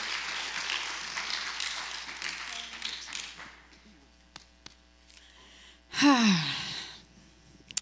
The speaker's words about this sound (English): Let's give him a hand clap, you guys.